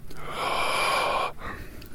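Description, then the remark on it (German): A loud, raspy breath drawn in for over a second, hollow and hissing like breathing through a gas mask, then a softer breath out. “Das klingt so, als würdest du durch eine Gasmaske äh, atmen.”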